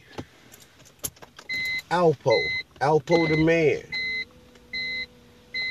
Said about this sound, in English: I had to turn my car into a studio today because tomorrow's my my mom's birthday and they're turning my house into a celebration hall for mom.